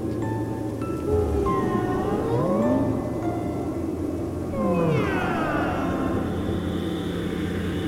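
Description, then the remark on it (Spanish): Two long, eerie, wavering meows with sliding harmonic pitch, made by a man meowing like a strange drawn-out cat cry, heard over a steady low droning background with no talking. “Dijo que sonaba como un maullido, el maullido más extraño que ella ha escuchado en su vida.”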